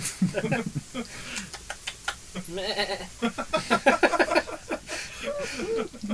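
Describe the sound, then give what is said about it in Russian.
A goat bleats with a shaky, wavering cry, calling out a few times while people talk over it. “Коза, иди сюда. Да, я тебя поглажу.”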